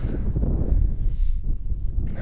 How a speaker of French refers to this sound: Il fait, il fait un peu frais. Des petites, euh, bourrasques de vent.